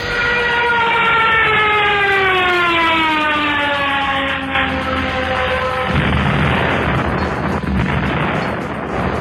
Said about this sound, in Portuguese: A explosão não é explosão prática, não é explosão de efeitos visuais, é uma explosão de GIF também. E a explosão é enorme. Você escuta barulho de como se fosse avião caindo e explosão para pássaros.